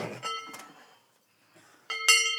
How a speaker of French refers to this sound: Ouais, vous aimez pas bien le bruit Bon, après, moi, franchement, c'est C'est le son que vous préférez. ouais. ouais. Mais c'est parce que c'est des cloches qu'on met vraiment que pour monter à la montagne.